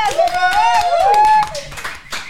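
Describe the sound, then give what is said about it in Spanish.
A burst of applause, quick sharp claps from a small group, with loud cheering voices and whoops rising over them before fading slightly near the end. “Y gracias a los chicos también. un aplauso para de”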